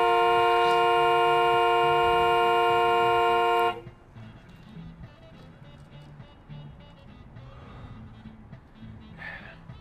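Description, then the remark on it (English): A loud, sustained car horn blares for about four seconds, then cuts off abruptly, leaving quieter background noise with faint murmuring voices. “You can't just honk and get your way.”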